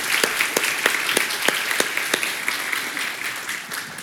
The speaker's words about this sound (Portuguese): Então, quero agradecer de todo o coração a todos os voluntários e voluntárias e vocês merecem uma salva de palmas. Nós vamos dar agora a todos os voluntários.